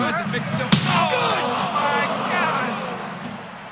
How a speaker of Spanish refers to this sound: Eso que escucharon fue la nuca de Foley impactando contra la rampa.